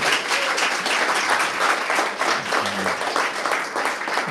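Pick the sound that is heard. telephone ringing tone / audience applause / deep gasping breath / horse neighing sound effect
audience applause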